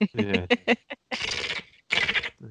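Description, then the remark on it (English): A person imitates a magpie, with a few short voiced squawks followed by two longer, harsh, raspy chattering bursts, moderately loud. “Sound like a sound like a like a magpie. You sound like a bird.”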